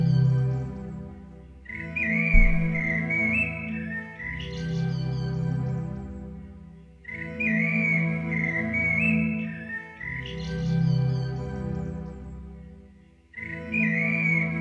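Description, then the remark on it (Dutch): A slowed-down birdsong recording, its drawn-out, low warbling whistles repeating in long phrases with brief pauses between them, playing steadily with no voices. “De mensen die het eh, merken, de vogel gaat veel, veel heel traag en traag.”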